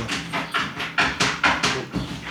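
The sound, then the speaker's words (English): A dog scratching itself, a quick series of about ten rough, raspy strokes in a steady rhythm, fairly loud and with no one talking over it. “Dog scratching, but yeah.”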